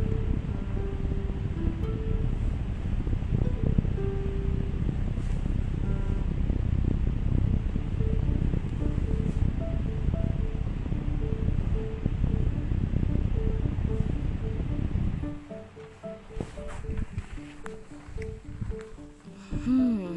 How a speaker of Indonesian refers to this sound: nyalakan kipas